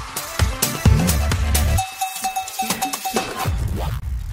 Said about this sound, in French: Allez, jingle, on passe à la deuxième polémique de la soirée. On fait comme si c'était routinier. Polémique numéro 2, jingle.